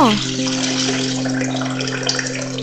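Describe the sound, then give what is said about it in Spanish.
Water pours steadily from a tap into a pot being filled for cooking, a continuous splashing rush with a ringing resonant tone that rises briefly at the start as the vessel begins to fill. “Estoy llenando una olla para cocinar.”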